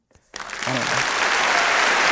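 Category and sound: sound effect, crowd cheer sound effect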